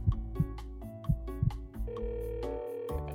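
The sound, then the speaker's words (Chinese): A telephone ringing tone, heard while placing a phone call in Chongqing, plays as a short electronic melody of sustained notes over soft, regular thumping beats, steady and moderately loud, with no voices. “我用手揪着发梢，心脏跟着铃声一起砰砰砰的跳着。”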